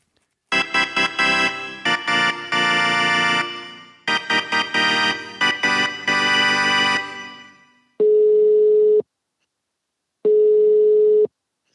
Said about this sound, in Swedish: Då ringer vi. Vad börjar vi med? Vi ringer farsan och ja, frågar.